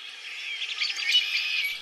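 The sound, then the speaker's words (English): A dense chorus of spring songbirds chirps and trills continuously, many small voices overlapping, with no one speaking. “And that fuels the return of spring songbirds”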